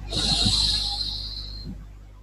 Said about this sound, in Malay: tarik nafas